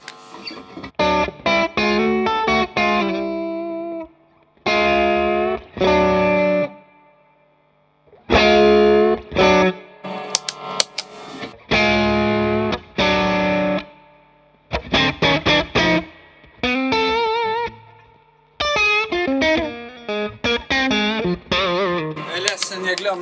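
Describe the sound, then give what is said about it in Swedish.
Electric guitar played through an overdrive pedal at lower gain, with chords and short phrases separated by brief pauses, sounding moderately loud and gritty with no voices. “Skimmer. Lite mindre gain.”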